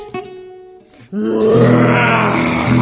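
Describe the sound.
After a brief, quieter tonal lead-in, a loud, rough roar from Leonardo, a story character, bursts in and holds steady, a low growling sound sustained for nearly two seconds, with no talking.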